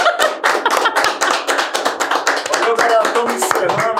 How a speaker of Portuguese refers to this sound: Galera, o que, que a nossa convidada merece? Ô, louco, de sempre, né, cara? Uma salva de palmas.